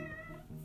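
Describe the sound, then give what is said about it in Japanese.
A cat meows once, a short tonal call with clear harmonic bands, moderately loud, with no talking over it. “なんかごめんなさい猫の声が”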